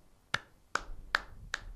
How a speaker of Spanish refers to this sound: Tibio, tibio, tuve aplauso.